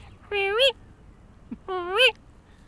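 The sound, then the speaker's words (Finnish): A person imitates a tawny owl's usual female contact call twice: two drawn-out, nasal, meow-like two-syllable 'kewick' cries, each rising at the end, separated by a short pause and a faint click. “Eli sillä on semmoinen kakstavunen naukasu.”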